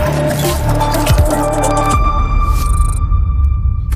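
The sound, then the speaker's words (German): A short produced jingle packed with sound effects: dense layered tones and low swooping sweeps up front, giving way to sustained ringing notes and a bright shimmering flourish, loud and without any talking. “Er hat noch keinen der Jingle gehört oder alle vergessen.”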